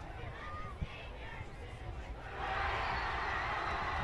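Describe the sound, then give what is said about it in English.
A large stadium crowd at a football game murmurs steadily, then swells into a louder, sustained roar about halfway through as the Chargers defense faces second and 10 at the 49, the broad noise holding at the higher level to the end. “It looks like the crowd's getting a little loud here.”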